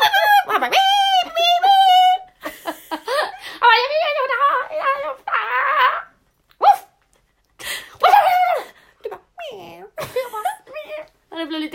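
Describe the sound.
A person imitates an animal's mating howl: a loud series of drawn-out, wavering howls and yelping cries, broken by short pauses and bits of laughter.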